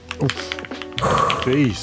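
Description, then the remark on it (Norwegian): Rapid, clacky keystrokes from a mechanical keyboard, fairly loud, with wordless vocal sounds running alongside the typing. “Men jeg kan altså da avsløre via denne trekk.no-saken eh, at på Disco Discovery-sida på TikTok så har mekaniske tastatur 5,6 milliarder visninger.”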